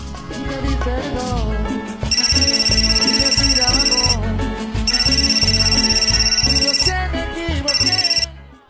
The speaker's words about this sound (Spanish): de repente recibe una llamada.